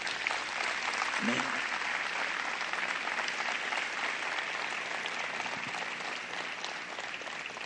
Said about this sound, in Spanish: Yo creo que Dios merece un aplauso más fuerte, ¿no es cierto?